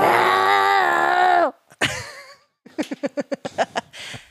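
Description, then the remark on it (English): A child's voice imitates an angry pig: a long, strained, harmonic squeal lasting about a second and a half, a short squeak, then a rapid burst of choppy grunting snorts, loud. “That's an angry pig.”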